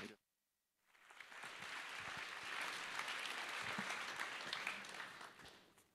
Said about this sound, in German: Euer ah Applaus.